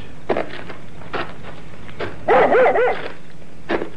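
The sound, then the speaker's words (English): A dog barks excitedly, having found something ahead: scattered single barks, then a quick run of high, yelping barks in the middle, with one more bark near the end. No one speaks. “Here, what's the matter with your dog? he seems to have found something ahead there.”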